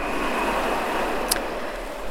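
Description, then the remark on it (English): A steady, dense roar of stormy sea surf mixed with wind, continuous and fairly loud with no distinct single crash, and no voices. “They kiss their wives and kids goodbye and leave their poorly lit, poorly heated huts, disappearing into the night, into the storm, into the raging waves.”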